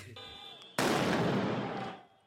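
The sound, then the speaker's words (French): A sudden, loud firecracker blast cuts in after a quieter, humming moment during a street riot in the Netherlands, followed by a dense roar of noise that lingers for over a second before fading out. “Moto incendiée, pétard, fumigène.”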